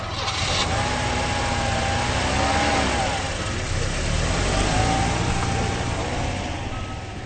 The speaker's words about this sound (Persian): شما حتما صدای هنهن کردن موتور ماشین فیلیپ را شنیدید. ماشین فیلیپ روشن نمی شود